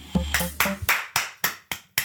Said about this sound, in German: Ganz schön viele Fliegen hier, die du wegklatscht. Das, na, das ist der Applaus. Das ist der Applaus?